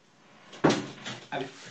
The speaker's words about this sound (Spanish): Espérate, voy a abrirle la puerta a la perra que se está desesperando.